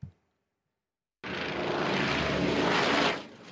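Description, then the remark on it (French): The loud propeller engine of a water-bombing aircraft flying overhead roars in abruptly after a moment of silence, holding a steady, dense drone for about two seconds before beginning to fade, as the aircraft fights forest fires north of Athens, Greece. “pompiers, bombardiers d'eau et hélicoptères pour maîtriser les feux de forêt qui se sont déclarés au nord d'Athènes mardi matin.”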